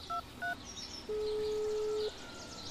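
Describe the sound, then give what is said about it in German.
In an audio drama, the character Falkner pulls out his mobile phone and calls the Hauptstraße police station: two short, clear keypad beeps, then a single longer steady tone lasting about a second, fairly loud over a quiet background with no voices. “Indes zückt Falkner sein Handy.”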